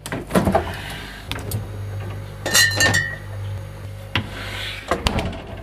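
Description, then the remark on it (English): Glass beer bottles clink together at the FI Garage fridge, with a door opening and a low refrigerator hum underneath, followed by more scattered clinks and a thud as a Mark Seed beer bottle is pulled out. “tidbit here before we get going again, since I found another beer in the fridge.”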